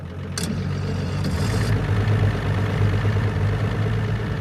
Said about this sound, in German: startet den Motor